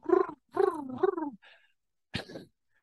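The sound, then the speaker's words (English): A person imitates a baby skunk being licked by its mother, with a few squeaky, wavering vocal cries, followed after a short pause by a sharp, brief burst of noise, all fairly loud. “The mommy skunk is like licking licking the baby skunk and the baby skunk's making noises like”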